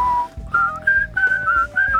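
Someone whistles a film theme tune, clear sustained notes rising and falling in short melodic phrases, with no talking over it.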